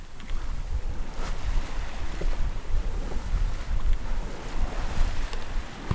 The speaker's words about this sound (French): Vraiment, on est entre les îles. L'eau est magnifique, elle est bien formée, il y a une bonne houle